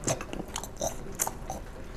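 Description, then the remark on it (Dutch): A crisp bite of pandan rice with leek and cherry tomatoes, followed by several crunchy chewing sounds in an uneven rhythm, with soft mouth noises in between and no talking. “ik wil even één hapje. Maar één hapje op de camera vind ik dat zo awkward. dan hoor je zo...”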